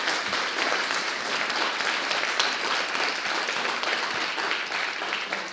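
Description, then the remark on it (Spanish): Steady, dense applause from an audience for a guitarist fills the whole stretch, a loud wash of many hands clapping at once with no pauses and no voices standing out. “Yo pido para él un muy fuerte aplauso, por favor.”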